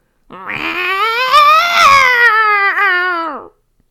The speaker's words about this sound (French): Tout à coup, Roya a entendu un rugissement derrière son dos.